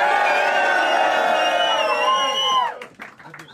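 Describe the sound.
A crowd cheers and whoops loudly in a sustained burst of mixed voices, holding steady for about two and a half seconds before breaking off into scattered shouts and fading quickly.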